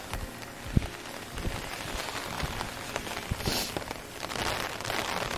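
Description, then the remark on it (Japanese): Heavy rain patters steadily on an umbrella overhead while someone walks in the rain, a dense, irregular drumming of drops with a few louder splats standing out. No one speaks. “雨の中を歩きながら、傘の雨の音をバックに”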